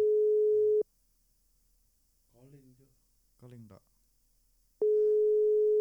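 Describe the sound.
A steady electronic ringback tone of a WhatsApp phone call sounds loudly for almost a second, goes quiet while two short voices speak, then the same flat tone returns near the end.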